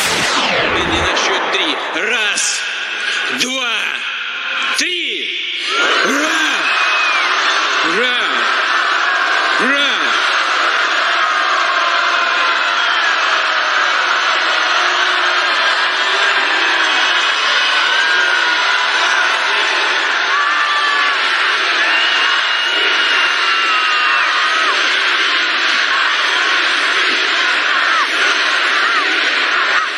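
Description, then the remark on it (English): A big, enthusiastic rally crowd waving Russian flags and cheering to see Putin roars loudly and continuously for the whole stretch, with a man's voice speaking in Russian over it near the start. “It's in Russian, but you'll hear the crowd a little.”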